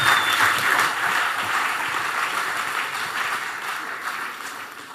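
A crowd applauds steadily for the full five seconds, a dense wash of many hands clapping at even loudness, with no voices standing out above it.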